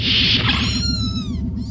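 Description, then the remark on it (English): Several kittens mew at once, high thin overlapping cries that slide downward, over a steady, pulsing low hum in the background. “Is is Department 8 a kitten terrarium?”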